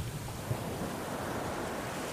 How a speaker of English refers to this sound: Just then, a big wave hits the ship. The wave takes the ship far out to sea.